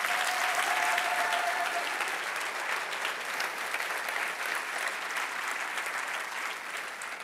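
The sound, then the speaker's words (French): An audience breaks into sustained applause to show they believe Jesus is truly God, a dense, steady roar of clapping that holds at full strength for several seconds before easing slightly, with a faint tone briefly audible at the start. “Est-ce qu'on peut le donner une main d'acclamation si on le croit ce soir?”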